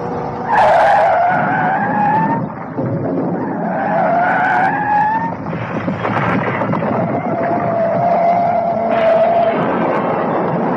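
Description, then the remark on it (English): Tires squeal loudly as a car being tailed, with a police car ahead, skids, with several long rising screeches over a constant roar of engines and road noise, intense throughout. “Get off the road, you fool. Get off the road. Jump the curb.”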